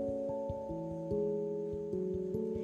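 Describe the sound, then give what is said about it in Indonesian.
A wall clock ticks in a quick, steady rhythm, each tick a sharp click layered over soft sustained musical tones, with no voices present. “sangat menantikan pergerakan jarum pendek pada jam dinding menunjuk ke angka 2.”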